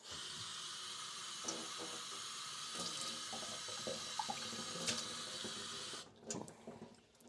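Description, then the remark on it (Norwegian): A tap runs in a steady, broad hiss for about six seconds while glasses are rinsed, with small clinks and splashes breaking through, then the flow stops and a few knocks follow. “Vi må skylle litt glass.”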